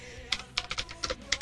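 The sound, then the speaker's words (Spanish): Typing on a computer keyboard while searching for a trailer during a live broadcast: a quick, uneven run of about eight crisp, bright key clicks over a low background hum, with no voices. “Me disculpen que esté tecleando.”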